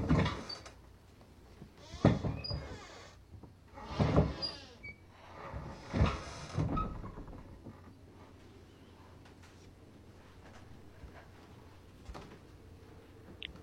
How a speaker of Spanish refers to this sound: Voltea sobresaltada en dirección del ruido. Una puerta se abre y cierra.